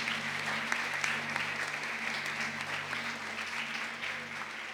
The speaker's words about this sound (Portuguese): Se você pode, dá uma salva de palmas para Jesus aí. Amém?